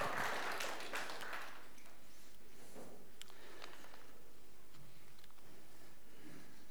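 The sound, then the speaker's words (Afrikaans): Audience applause opens loud as a dense wash of clapping, then thins out within about a second and a half, leaving scattered faint claps and quiet background noise. “Ja, kom ons geniet vir hulle hande klap.”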